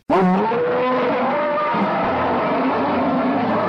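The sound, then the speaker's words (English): A classic Thunderbird car engine starts abruptly and roars to life, revving loudly before settling into a steady, throaty idle for a few seconds. “Kendall Jenner takes flack for firing up her classic Thunderbird”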